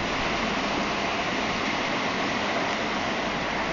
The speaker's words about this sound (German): Ja. Äh, das Wasser hat gleich die, die Kante des Bordsteins erreicht. Bedeutet, äh, gleich ist jetzt oder nie.